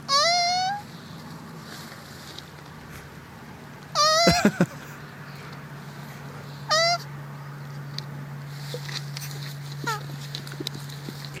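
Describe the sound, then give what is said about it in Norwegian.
Three short, strained honking calls from mating tortoises ring out at intervals, each a harmonic squawk, over a steady low hum and quiet background noise. “når skilpaddene har sex, så lager de en ganske morsom lyd.”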